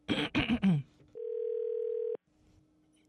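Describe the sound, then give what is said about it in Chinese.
A voice speaks briefly, then a phone's ringback tone plays while a call is being placed: one steady, mid-pitched beep lasting about a second, followed by a quiet pause before the next ring begins. “来来来，继续打电话，继续打电话，来继续卡电话，好，稍等我，”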